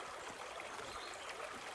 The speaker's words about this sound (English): It's still moving, but obvious that only in the past few weeks it's drying up, the smooth river rocks exposed.